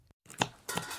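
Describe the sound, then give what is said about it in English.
Food being chopped in a kitchen: a short burst of sharp knife strikes on a board, with a brief scraping rustle between, and no voices. “Hear that? That's the sound of change being cooked up in our schools.”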